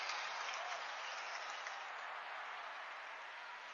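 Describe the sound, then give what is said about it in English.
A basketball student section cheers loudly at a Kearney High game, a dense, sustained crowd roar with clapping that holds steady throughout and eases off slightly toward the end, no voices standing out. “The Rowdies making some noise.”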